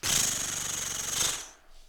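A voice imitates a page turning: one loud, rough, breathy rasp with a low buzzing undertone, held for about a second and a half before cutting off abruptly.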